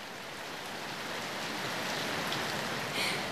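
Steady heavy rain pours down in a dense, continuous hiss, with drops splashing on surfaces throughout; no voices, just the even wash of falling water, slightly brighter near the end.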